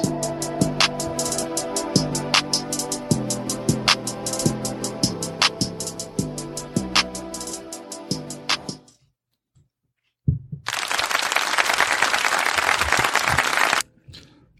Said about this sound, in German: Die Folge hat geladen, wir klatschen in die Tatzen.